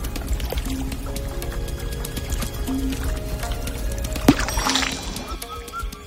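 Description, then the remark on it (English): Water sloshes and splashes steadily as a woman swims, with a sharper burst of splashing toward the end. No one speaks. “Hearing her little one laugh and play, the mother was pacified and she decided to swim just a few moments longer.”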